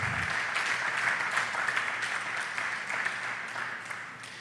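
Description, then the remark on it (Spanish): A crowd claps steadily and densely throughout, a continuous wash of many hands applauding at fairly even loudness with no voices standing out. The applause is given to the Lord during a Christian sermon. “Alguien puede darle ese aplauso al Señor.”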